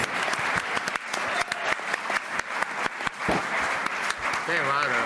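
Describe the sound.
Sustained audience applause, a dense, steady patter of many hands clapping at full volume for about five seconds, with faint voices mixed in toward the end.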